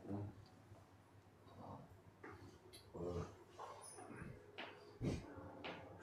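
A dog pants and shuffles at the door, with several short whimpering, yippy bursts at irregular intervals over a low, steady background.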